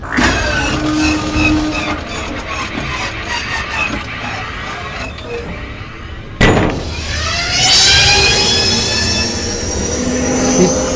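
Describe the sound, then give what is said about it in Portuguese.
A car engine runs roughly with a loud metallic whine, then a sharp bang sounds as someone hits the engine, and the engine revs up, its pitch rising into a loud, sustained roar. “perde a paciência e dá uma porrada no, no motor e o motor faz.”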